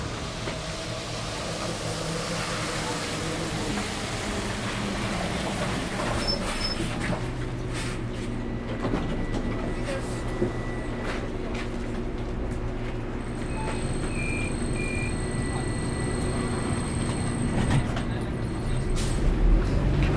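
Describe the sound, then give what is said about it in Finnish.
Steady rumble of a city bus ride in Tampere heard from inside, on the way to the railway station, with a continuous low engine drone, shifting humming tones as it changes speed, and occasional clicks and rattles. No one speaks. “Ja mä otan tästä nyt ensin bussin äh, tuonne rautatieasemalle, jonka takana on Hotelli City Inn, jonka edessä mä tapaan Juhanan.”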